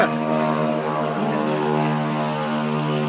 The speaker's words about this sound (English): Got that tuned muffler on the moped.